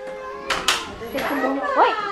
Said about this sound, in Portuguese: Os bebés brincam numa sala acompanhados por três funcionários do refúgio.